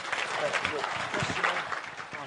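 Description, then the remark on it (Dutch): An audience applauds steadily for a couple of seconds, a dense, fairly loud wash of many hands clapping, with some murmured voices mixed into the noise. “Zo applaus geven, dank u wel.”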